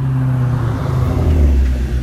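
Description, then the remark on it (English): A car engine hums with a deep, steady drone, then swells louder as it revs up near the end. No voices. “Well, that's a nice ass motherfucking car. I ain't gonna lie. Oh shit. See that engine sound way better than the other fucking engine we was we you know what I'm saying we heard on that motherfucking in the beginning of the fucking podcast.”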